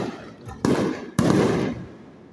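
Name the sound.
fireworks exploding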